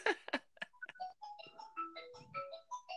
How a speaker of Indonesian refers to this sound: Telepon tuh angkat heula.